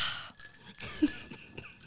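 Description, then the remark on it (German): Ice cubes clink and rattle softly against a glass, a few light, irregular taps at low volume, with no one speaking. “Im Prinzip ist es nur Jackie mit Eiswürfeln.”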